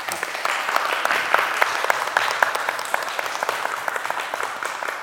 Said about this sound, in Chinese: 好，萨度，萨度，萨度啊！我们圣众一起鼓掌为他们赞叹。